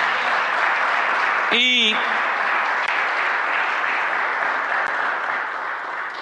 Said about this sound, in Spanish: Gloria sea nombre Señor. Dele una ofrenda de palmas, Señor, hermano.